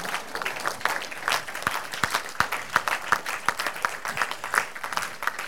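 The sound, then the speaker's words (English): A crowd claps steadily for several seconds, a dense patter of many hands with a few sharper, louder claps standing out, with no voices on top. “Somebody can't clap because I didn't say you're going to buy a car.”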